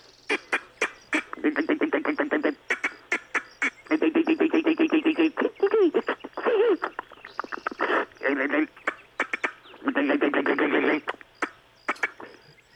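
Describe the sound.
A person imitates a squirrel chewing nuts in a pocket with their mouth, making fast, rhythmic clicking and nibbling bursts in several long runs with short pauses between, loud.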